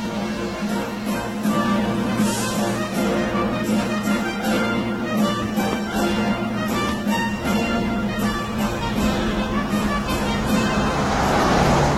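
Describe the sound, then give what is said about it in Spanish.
A car drives along busy city streets in London, England, its engine and road noise forming a steady, fairly loud rumble that continues throughout with heavy passing traffic around it. “Conduzco mi precioso coche unos 160 kilómetros al sur hasta las famosas calles de Londres.”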